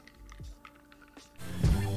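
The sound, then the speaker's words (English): Quiet wet mouth sounds and small slurps, then a louder, fuller gulping noise near the end as a drink is sipped and swallowed. “Let me get into this transitional sip and then we'll get on to the next thing.”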